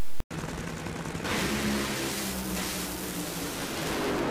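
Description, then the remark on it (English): Robert Hight's funny car blasts down the drag strip on a 3.7-second run at 338 miles an hour, its engine a dense, crackling roar that surges louder after a brief gap and holds at full intensity for several seconds. “Um, Robert Hight, not to be outdone, he actually is the first man or woman for that matter to go into the 70s in a funny car.”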